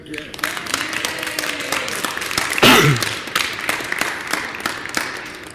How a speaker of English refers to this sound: And we should applaud her again.